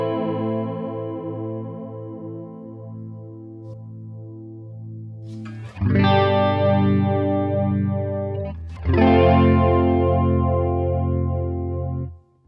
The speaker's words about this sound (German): Gut, es klingt jetzt sehr chorusmäßig, also ja. diesen ich bin aber jetzt auch von dem reinen Vibrato-Sound jetzt nicht so ein Fan, dass man einfach nur dieses ich, Scheppern ja. irgendwie kriegt.